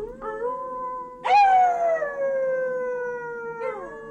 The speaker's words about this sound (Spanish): A esta llamada contestaron a lo lejos los aullidos de los lobos.